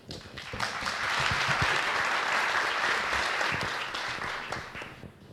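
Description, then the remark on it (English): A crowd breaks into loud, sustained applause and a standing ovation welcoming a visiting speaker from India to a Gandhi Katha event in Mexico, a dense wash of clapping that swells quickly, holds steady for several seconds, then gradually tapers off, with no voices rising above it. “To give expression to our sense of honor and privilege, I ask you to welcome him with applause and a standing ovation.”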